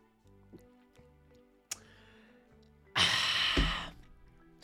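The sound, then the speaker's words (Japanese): Over soft background music, a sharp swallow-like click is followed by a loud, breathy exhale, like someone finishing a gulp of Mexican Pacifico beer (3.4% alcohol) and letting out a satisfied breath. “うんまビールだからねちょっと嫌な音が聞こえるかもしれないんだけど”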